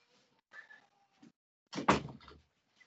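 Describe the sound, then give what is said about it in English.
A door is pushed shut: a faint creak and light rustle first, then a solid thud with a brief rattle as it closes. No one speaks. “oh my god my door's open my child's screaming one second”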